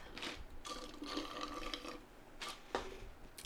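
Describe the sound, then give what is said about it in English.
Liquid is poured into a glass, with splashy bursts of pouring and a brief clink, no voices present. “Great sound effects. I need a new drink.”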